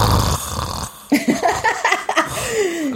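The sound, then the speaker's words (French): A person mimics someone snoring while asleep, a short run of rough, rattling snorts and throaty breaths, fairly loud, ending in a drawn-out exhale. “ça peut être la belle personne du monde, mais elle ronfle.”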